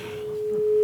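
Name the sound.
telephone call connecting tone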